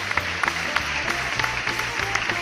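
A round of applause: dense, steady clapping from several people, a continuous crackle of quick overlapping claps that holds at an even level throughout, with no one speaking.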